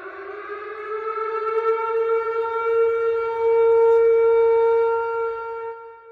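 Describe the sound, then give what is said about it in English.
A loud civil defense siren wails continuously for about six seconds, its steady droning tone creeping slightly upward in pitch, with no voices over it. “Um, uh, whatever the sound is, here is the sound of the malpractice warning.”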